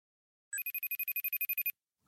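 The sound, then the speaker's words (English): A telephone rings on an outgoing call with one quick electronic trill, about a dozen rapid, even pulses over a second, heard clearly with no voices. “After we closed the phone lines, we had one quick call to make.”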